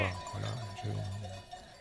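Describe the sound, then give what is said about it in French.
Bells from a mountain herd clank softly and irregularly over a low, steady droning tone. The scene is fairly quiet, with no clear speech. “je me revois en train d'enregistrer les sons de, des insectes sur le bord du chemin, les sons des troupeaux aussi. C'est quelque chose qui me fascinait, les, les, des troupeaux dans la montagne, et puis les orages.”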